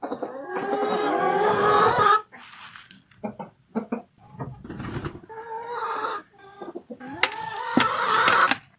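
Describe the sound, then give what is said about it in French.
Hens cluck and squawk in a coop where small eggs have already been laid, a loud, busy chorus that comes in bursts with short lulls between, some calls rising into drawn-out, agitated cackles. “Ah, salut les filles ah, Il y a déjà des petits œufs.”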